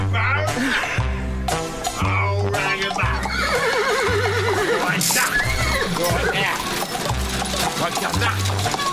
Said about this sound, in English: Just been feeding me old horse Rosie outside there,